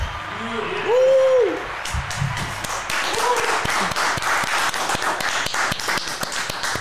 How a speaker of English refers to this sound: You got the soundbite clap and you got the real clap.